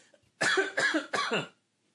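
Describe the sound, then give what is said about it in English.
A quick run of three harsh coughs, each a loud, raspy burst of breath in steady rhythm, with no talking over them and silence on either side. “Um, what I was going to say though, before I started coughing”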